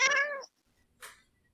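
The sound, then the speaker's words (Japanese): A pet cat that has just come in during a meeting lets out a clear meow lasting almost half a second, then after a short pause gives a second, briefer and breathier cry. No one speaks. “うん、こんな猫が今やってきました。”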